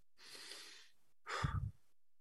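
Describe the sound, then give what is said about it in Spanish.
A slow, airy inhale through the nose followed after a short pause by a stronger, fuller exhale, with no talking; one complete breath taken during a guided breathing exercise. “Inhalando y exhalando.”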